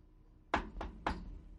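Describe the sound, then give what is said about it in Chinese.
Three hollow knocks on a wooden coffin lid, made with a loosely clenched fist as if knocking on a door, evenly spaced in quick succession, each a sharp dull thud with a short ring, standing alone against a faint low background. “这一手举着手电筒，一手虚握拳头，像敲门似的，咚咚咚，”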